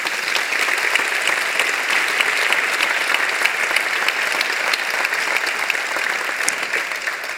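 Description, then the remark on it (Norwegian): Steady applause from an audience fills the whole stretch, dense overlapping claps at an even, fairly loud level with no talking over it. “ja, klapp.”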